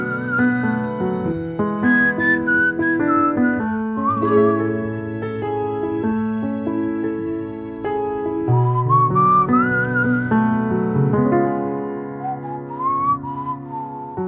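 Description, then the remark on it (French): A tuneful whistled melody carries on steadily over a full instrumental accompaniment, the bright gliding notes sitting above the music for the whole stretch with no talking. “Et toi, petites oreilles, tu sais siffler aussi Alors essaye de te joindre à eux.”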